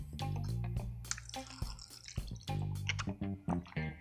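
Sips of water with wet, trickling liquid sounds and small clicks and gulps over a low steady hum, no one speaking.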